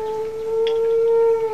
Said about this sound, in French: Merde. Qu'est-ce qu'il y a Vous avez entendu Quoi, le loup